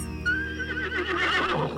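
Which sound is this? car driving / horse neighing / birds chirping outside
horse neighing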